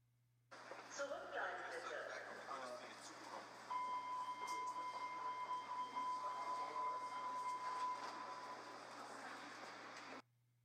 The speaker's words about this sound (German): Und vielleicht ist der ein oder andere von euch schon mal in Hamburg mit der U-Bahn gefahren. Und wenn die U-Bahn in einer Station abfährt, dann hört man folgende Ansage.